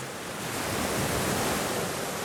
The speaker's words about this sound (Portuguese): Precisamos sentir a areia nos nossos pés e ouvir o som do mar.